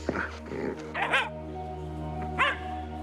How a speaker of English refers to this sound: This papakainga in Ruatoria is home to a multitude of dogs.